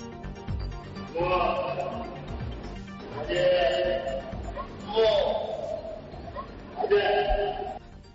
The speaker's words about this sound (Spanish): Por si no lo habéis escuchado bien, vamos a, vamos a repetirlo, Noel, por favor, porque esto es un elefante. Escuchemos.